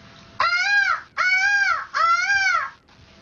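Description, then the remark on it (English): A woman's voice imitates a peacock call, giving three loud, harsh, wailing cries of similar length in quick succession, each rising and then falling in pitch. “I'm, I'm, guessing she learned this or recorded this in quarantine with her significant other, but she could do a bunch of impressions of pretty much any animal in a zoo.”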